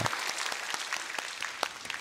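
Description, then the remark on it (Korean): A church audience claps together in a steady, dense burst of applause for the children who collected an offering, many hands striking at once with sharp individual claps standing out from the broad wash of sound. “박수하셔야죠. 우리 자녀들인데.”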